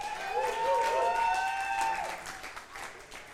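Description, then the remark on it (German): A crowd applauds a singer steadily for a few seconds, the dense clapping fading slightly toward the end, with a high, sliding whistle or cheer rising over it early on. “Ähm, hey, wir wollen, wollen wir den Applaus vor allen Dingen”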